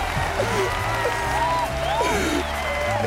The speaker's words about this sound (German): Gibt's ja, gibt's einen extra Applaus. Danke.